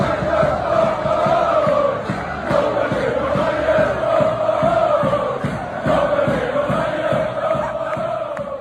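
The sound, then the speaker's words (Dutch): A large football crowd chants the name of footballer Andries Noppert over and over in a steady, rhythmic unison, the loud massed voices filling the space with a continuous stadium roar and no other talk. “Nou, de eerste keer was het nog bij Coed Eagles dat dat publiek ging schrijven.”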